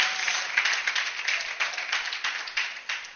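A crowd applauds steadily, a dense wash of many hands clapping at once with sharper individual claps popping out, sustained at an even level with no talking.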